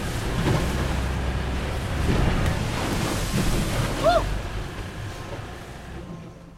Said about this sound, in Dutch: En dan eh, gaat het zo slalommend tussen de, de golven door naar het, naar het andere schip. dat is tamelijk spectaculair, kan ik je zeggen.